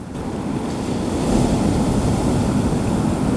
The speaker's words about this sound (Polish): Ja przychodzę tutaj posiedzieć, e, zatrzymać się i poddać właśnie tym rytmicznie załamującym falom i temu dźwiękowi.